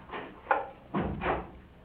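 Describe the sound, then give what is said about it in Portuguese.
A house door bangs shut downstairs as a woman leaves the house, in Lisbon: a dull muffled thump with a brief rattle, followed by a second heavier knock, both faint with no voices. “ouviu bem quando a esposa saiu de casa e bateu a porta lá embaixo.”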